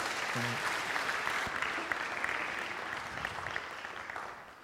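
Steady audience applause fills the whole stretch, a dense patter of many hands clapping at an even loudness, gradually thinning slightly toward the end.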